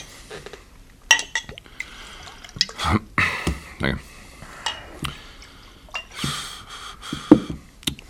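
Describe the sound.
Whisky is poured into a glass, with small splashes and clinks of glass in short uneven bursts over several seconds, with soft voices murmuring underneath.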